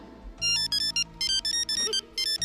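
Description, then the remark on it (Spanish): A funny-sounding electronic doorbell at a building's security booth rings out in a quick string of bright, high, warbling tone bursts with a bouncy, stop-start rhythm, fairly loud and with no one talking. “Mira qué timbre más gracioso, ¿eh?”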